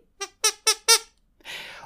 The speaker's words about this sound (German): Ähm, ich habe aus meinem Tabuspiel die Quietsche, die Pinke, die ihr vielleicht kennt, äh, rausgeholt und würde jetzt einfach immer, äh, wenn es besonders eklig wird und ich es vorher weiß, einfach kurz ein Signal geben.